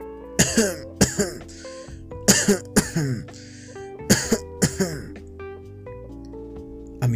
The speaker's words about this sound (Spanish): ¿Hace mucho tiempo que tiene usted esa tos?